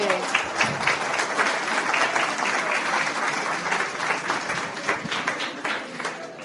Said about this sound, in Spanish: Un aplauso a la señora. Un aplauso, sí.